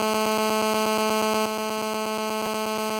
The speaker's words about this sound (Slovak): Niekto nám volá. Vieš, ako sa zdvihne telefón?